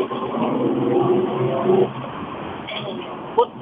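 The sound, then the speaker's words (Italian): A steady, muffled hum of a car interior heard over a narrow phone line as a woman calls in to a radio programme from her car, her voice talking over the rumble early on, with a brief knock near the end. “Non so se mi sente, sono in macchina.”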